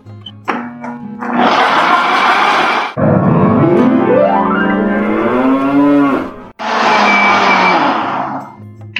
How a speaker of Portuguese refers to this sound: Ó, só água ferveu, só colocar ela no liquidificador e bater com o coco.